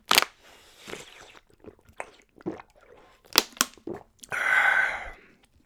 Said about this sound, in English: I got some water here. Fucking thirsty as fuck. Excuse me while I take a fucking sip of water. Uh, might be loud, might be not. I'm gonna make it loud just to be obnoxious.